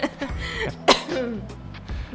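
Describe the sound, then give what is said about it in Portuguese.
A coughing fit from someone choking on their own saliva while speaking: a run of harsh, sputtering coughs with one especially sharp burst in the middle and strained, throaty gasps between them. “Minha própria saliva.”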